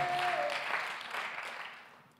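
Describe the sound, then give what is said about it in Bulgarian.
A church audience applauding for God: dense, overlapping clapping from many hands, steady, then gradually thinning and fading toward the end. “О, ако ръкопляскаш, защо не ръкопляскаш на Бога, като че наистина ти си свободен от духа на отхвърляне?”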